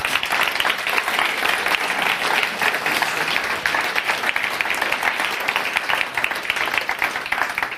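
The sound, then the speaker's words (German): An audience applauds the people behind the Advent markets, a steady, dense wash of many hands clapping at an even loudness throughout, with no clear individual claps standing out and no voices over it. “Lasst uns doch mal ihnen einen Applaus geben für den coolen Märkte.”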